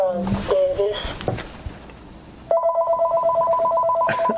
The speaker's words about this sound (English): I'm sorry for the phone.